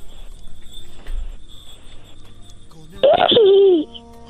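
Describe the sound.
A child's voice imitates a horse, letting out one loud, wavering whinny that slides downward in pitch for about a second after a quiet stretch with faint background murmur.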